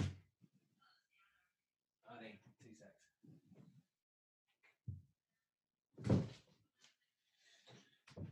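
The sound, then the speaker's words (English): A door is opened with a few solid thunks and handle clatter, along with shuffling movement and brief muffled voices in the background. “Let me just let me just go and get the door.”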